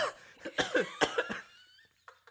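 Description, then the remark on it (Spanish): A rapid string of five or six open, deliberate coughs, fairly loud, trailing off into a couple of faint breathy bursts, with no talking. “Es importante, porque si yo estoy tosiendo así que, ah, ah, tosiendo así como...”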